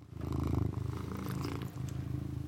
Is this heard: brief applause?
no